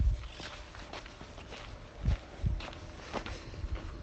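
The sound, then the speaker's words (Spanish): A heartbeat rhythm tapped out as soft, low thumps, some landing in close pairs, spaced irregularly across a few seconds with quiet background noise between them and no talking. “Escuchar el corazón y un ritmo, el ritmo del corazón sería así, el perro rítmico.”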